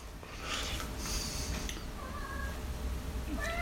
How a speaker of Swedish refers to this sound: Ja, nu kom Åke här för övrigt, min, våran katt.